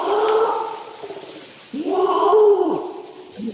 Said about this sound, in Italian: un orangutan.